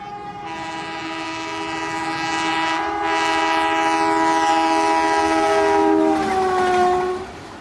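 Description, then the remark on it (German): A loud, sustained train horn blares over the low rumble of a rolling train, holding steady for several seconds before bending downward in pitch as it passes by. “Der Hype Train ist back und das freut mich so absolut und überhaupt gar nicht.”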